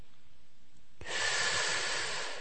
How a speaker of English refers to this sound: consciously breathe in through your nose and out through your mouth. And as you breathe in, think in, I am breathing in. And mm-hmm. as you breathe out, think out, I am breathing out.